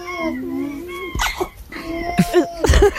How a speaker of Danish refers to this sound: Det er jo en utrolig nuttet alpaka, der nyser. Alpaka? Ja. Altså, altså sådan lama agtig en. Ja, dem, der har bare lidt mere sådan pels på.